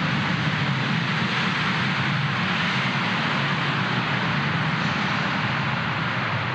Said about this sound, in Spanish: Pasan los aviones porque estamos en el aeropuerto de Mérida y esto es parte eh, del crecimiento y del movimiento y del progreso que hay, porque en el tiempo que llevamos han aterrizado o han despegado